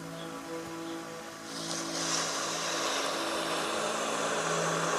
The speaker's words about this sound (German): Du hörst leise Wellen, die im immer gleichen, angenehmen Rhythmus an den Strand spülen.